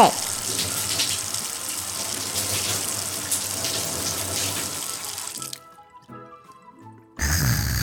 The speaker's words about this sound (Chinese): 还有，每次打开水龙头，就有冰冰凉凉的水水。